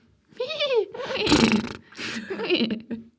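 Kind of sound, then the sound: vocal imitation, person imitating a horse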